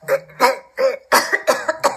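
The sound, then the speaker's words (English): A voice performs a string of gagging coughs, about six harsh, retching bursts in quick uneven succession, close and fairly loud with no other sound around them. “Drizzle poked him to be quiet, but made a gagging cough sound”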